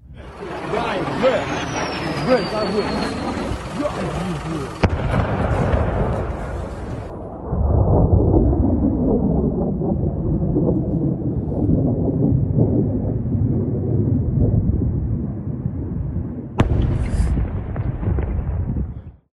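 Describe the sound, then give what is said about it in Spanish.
Rockets strike a Ukrainian city in an attack aimed at its public utility infrastructure: a high falling whistle, then a sustained heavy roar and rumble broken by a couple of sharp booms echoing between buildings. “Mucha gente alcanzó a protegerse en los refugios subterráneos, pero no pocos debieron quedarse en sus casas o en plena calle y desde ahí ver y oír los cohetes.”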